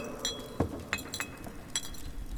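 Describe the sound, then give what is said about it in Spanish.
Glass wine bottles clink together in a quick, uneven series of bright, ringing taps as a flask of The Grave wine is broken open in vaults beneath a riverbed, about half a dozen light knocks with short metallic tails over a low background hum, and no voices. “rompí un frasco de vino de The Grave y se lo ofrecí.”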